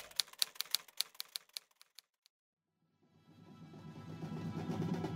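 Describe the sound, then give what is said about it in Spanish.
A burst of sharp, rapid typewriter keystrokes that slow and thin out over two seconds, then fall silent before a low, swelling rumble of background noise fades in. “Querido diario, mi máquina de escribir se quedó sin tinta.”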